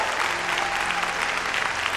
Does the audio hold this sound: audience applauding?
yes